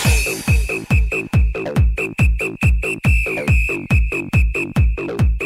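A shrill, high whistle melody holds mostly on one piercing note over a loud, pounding four-on-the-floor kick drum in an early-2000s dance hit, with no talking.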